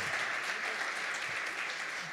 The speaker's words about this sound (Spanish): Quiero que se tope mi papá conmigo, que le dé un aplauso a él.